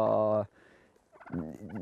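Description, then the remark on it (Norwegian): A loud, harmonic poultry call bursts out, then after a brief quiet pause comes a rapid, warbling gobble-like calling from healthy-looking birds with fine plumage, outdoors on a day of about 15 degrees. “Fisk, fuglene ser jo friske og raske og fine ut. De er fine i fjærdrakta”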